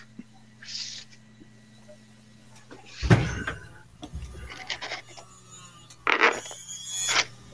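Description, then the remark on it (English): A steady low 3D printer fan hum runs throughout, broken by sudden bursts of harsh plastic rattling and clattering as a piece of plastic catches in the fan, a loud one about midway and another pair of scraping rattles near the end. “Fucking, it's the fucking fan. Like, there's a piece of like plastic that, like, I don't know, somehow is”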